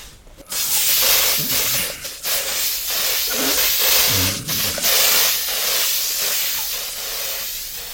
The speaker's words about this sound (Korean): 일단 살충제부터 뿌리고 연막 치자.